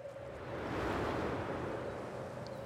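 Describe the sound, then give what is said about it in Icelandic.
Steady rush of ocean surf with a broad, continuous roar that swells slightly, fairly loud with wind texture and no voices. “Augun fyllast af öldum og hann er aftur komin út á haf.”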